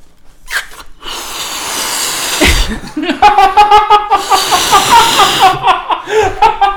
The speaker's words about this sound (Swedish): Det låter en ballong här inne också. Akta så inte den smäller nu.